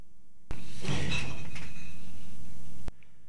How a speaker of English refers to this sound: Almost knocked an entire box of mason jars onto the floor in my workshop.